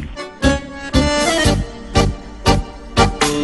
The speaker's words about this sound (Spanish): En el tango el acordeón suena de manera particular y suena así como lo estamos escuchando. Por eso Aida Anconetani cuentan que al acordeón inicialmente lo llamaron la verdulera.